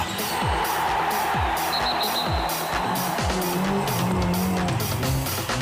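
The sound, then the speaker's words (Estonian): A loud, continuous closing jingle of a radio show built from race car sounds: engines roaring and revving with repeated downward whines and screeching tire squeals, and no one speaking. “sellega on saade lõppenud, aga jää veel hetkeks telefoni juurde sa pane äh, kõll ära, me räägime tööjuttu ka.”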